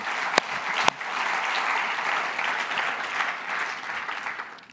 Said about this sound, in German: Da sind Leute da, die einfach dienen. Die da sind, die das machen. Ja, geben wir auch mal einen Applaus für all die. Yes! Come on!